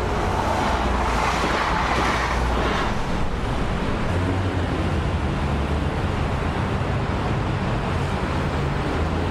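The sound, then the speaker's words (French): An electric train passes by with a steady, loud rushing rumble and a low mechanical hum, holding even for several seconds with no voices. “Eh bien, c'était le cinquième son, un train électrique qui passe.”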